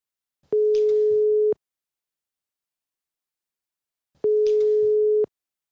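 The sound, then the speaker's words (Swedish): A telephone ringback tone sounds twice while a call to the development chief and deputy CEO of Inlandsbanan connects, each steady tone lasting about a second with a long silent gap between, clear with no voices. “Ja men precis, då, då ringer vi upp eh,”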